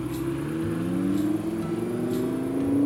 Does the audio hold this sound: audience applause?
no